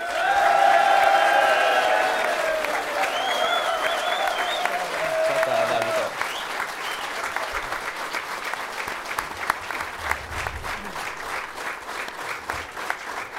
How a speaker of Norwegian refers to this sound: Kjetil Knutsen han er en Bodø-mann. Han valgte å bli i eh, Bodø. Gi han en varm applaus.